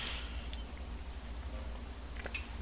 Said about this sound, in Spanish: pero los compartiré después que termine de refrescar con la cucharita este café y me dé el primer sorbito del día. Así que ya voy.